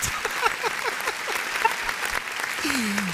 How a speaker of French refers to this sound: Comme RTL, on fait les émissions en public, on a tout le monde derrière qui applaudit.